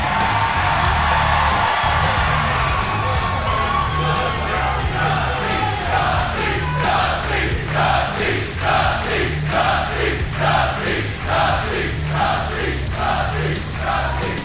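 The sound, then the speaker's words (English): A large live NXT wrestling crowd, reacting to talk of a tag team tournament, roars steadily, with whoops and yells rising out of it, then settles into a rhythmic chant with evenly spaced bursts about once a second, loud throughout. “You guys sound like you want that.”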